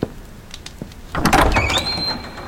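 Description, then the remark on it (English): A few faint clicks, then the door to a shrine slides open with a rushing whoosh and a rising mechanical whine that holds steady to the end, with no talking. “For the fuliginous, the door, please.”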